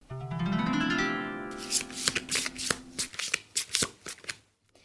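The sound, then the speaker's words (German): Playing cards being shuffled, a rapid run of crisp papery riffles and snaps, followed by a few distinct slaps as the next card, the Page of Coins, is drawn; a faint low tone hums at the start. “Gut, dann würde ich gleich die nächste Karte ziehen.”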